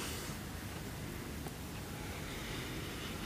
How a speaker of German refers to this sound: Und genauso wie die Wellen ganz natürlich an das Ufer plätschern, spürst du auch deinen Atem.